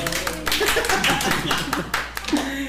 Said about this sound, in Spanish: Aplaudan desde donde estén en este momento.